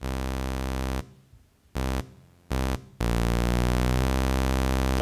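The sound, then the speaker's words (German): A buzzy, harmonically rich sawtooth synth tone from a saw~ (Saw-Tilde) object plays in bursts: a sustained note, two short blips, then a long held tone whose pitch glides smoothly, interpolated between events with a line~ object, before settling. No voices, just the raw electronic drone. “Ich habe jetzt einfach als Instrument hängt jetzt äh, einfach nur ein Saw-Tilde da dran.”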